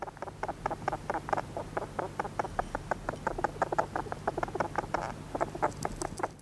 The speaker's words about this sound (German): Hier haben wir noch einen Maulwurf beim Eingraben.